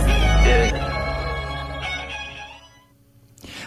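A cat gives a long, drawn-out meow with a wavering pitch, clear, over a low steady hum, then a brief soft rustling noise at the end.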